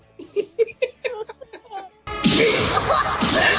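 A rapid run of short, sharp hits and grunting vocal bursts gives way to a sudden, loud, sustained crash of blows and whooshing impacts, like a cartoon fight flurry, from an anime fight in which a character punches, kicks and beats Piomon.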